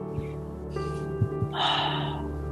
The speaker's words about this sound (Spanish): Tomamos otra linda respiración profunda.